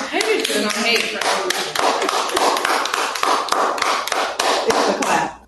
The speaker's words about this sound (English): I just love how y'all clap and applaud each other's answers. This is such a great example of sisterhood and loving your friends.